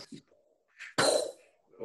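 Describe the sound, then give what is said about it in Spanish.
A single explosion sound effect bursts in suddenly and loudly, then decays quickly over about half a second. Brief vocal sounds come before it, and a voice starts again at the end. “La explosión de siempre.”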